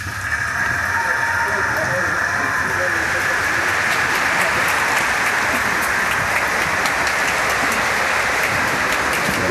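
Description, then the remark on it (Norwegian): Loud, sustained applause from a large audience in the Konserthuset concert hall after an encore, a dense steady wash of clapping that fills the whole stretch without pause, with a faint murmur of voices mixed in. “Masse applaus.”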